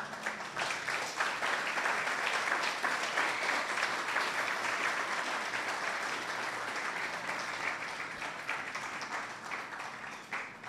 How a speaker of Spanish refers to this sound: Amén. ¿Por qué no le da un aplauso al Señor por esto?